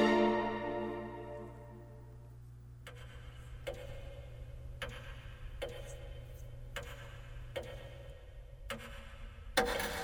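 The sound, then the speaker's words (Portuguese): A resonant chime from an ebony clock rings out and slowly fades, then the clock ticks steadily, about one crisp tick per second, clear with no voices. “E a vida do relógio de ébano se extinguiu junto com a do último folião”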